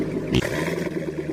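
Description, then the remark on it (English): A Corvette sports car engine rumbles loudly, a steady low growl with a sharp burst of revving near the start, no voices present. “That's the sound of America's only sports car.”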